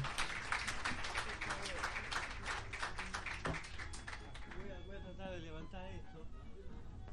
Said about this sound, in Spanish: Antes que nada quisiera que se renueven los aplausos para esta buena señora. ¿eh? Porque me, ha, me enorgullecido el alma con lo que dice.